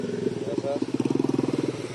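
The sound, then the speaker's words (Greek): A motorbike ridden by young people putters with a steady, rapid pulsing throb that grows louder and more rhythmic, as if passing by, with faint voices in the background. “Αν είναι δυνατόν, δηλαδή με τα μηχανάκια τα παιδιά αυτά, με κίνδυνο τη ζωή του, δηλαδή.”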